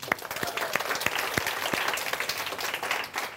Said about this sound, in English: round of applause.